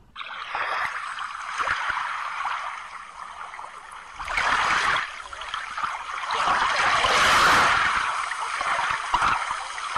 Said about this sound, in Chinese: 这段很明显是海浪的声音啊！